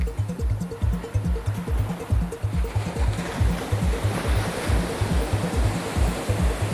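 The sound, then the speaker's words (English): Steady rushing surf and ocean breeze fill the scene on a beach with soft sand at moderate volume, with a muffled, rhythmic bass thump of music pulsing underneath throughout. No one speaks. “Sound bouncing off the 20 foot tall teenage sand castles, the soft sand and ocean breeze temper the music.”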